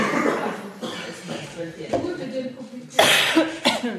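Several coughs ring out over a murmuring crowd, the loudest burst near the end, as if from an audience settling in before something begins.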